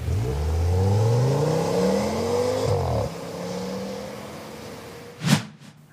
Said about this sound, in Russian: Забравшись таки в салон, он завел двигатель и немедля вдавил педаль газа в пол.